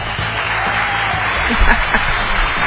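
Steady applause on the 97.7 FM radio show, directed at the listeners: a dense continuous patter of many hands clapping at a fairly loud, even level throughout, with a few low thumps mixed in.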